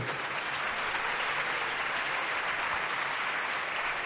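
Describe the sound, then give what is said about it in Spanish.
Sustained applause from a sizable crowd gathered at the Cúpula del Milenio in Valladolid, welcoming a live connection with a correspondent in the Canary Islands, steady and dense throughout, with continuous clapping and no voices standing out above it. “Eh, conexión Canarias-Valladolid, te reciben así los amigos que están aquí concentrados en la cúpula del milenio.”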